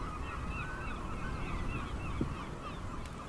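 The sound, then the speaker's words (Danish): Seagulls screech repeatedly in a harbour on the Limfjord in Denmark, several overlapping calls over a steady low rumble of wind and water. “Det eneste, der minder bare en lille smule om det fiskerliv, der var engang. Det er mågeskrigende.”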